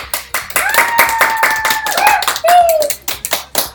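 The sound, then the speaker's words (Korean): Several people clap their hands to open the third series of the show Design Talk (디자인 말하기), a quick, steady burst of applause lasting a few seconds, with brief overlapping vocal whoops riding above the claps. “박수!”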